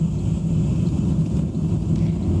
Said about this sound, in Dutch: Nou, je hoort dus een auto, dat is de chase car, die rijdt er achteraan.